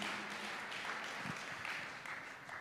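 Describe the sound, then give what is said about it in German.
Applause from a church audience during a sermon, given to the Holy Spirit: a steady wash of many hands clapping together, dense and continuous without a clear beat, held at a fairly even level for a couple of seconds. “Ja, ruhig einen Applaus.”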